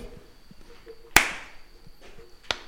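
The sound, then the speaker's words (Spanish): A single sharp, loud hand clap rings out, followed about a second later by a second, softer clap against a quiet background. “¿Quieres el último aplauso, güey?”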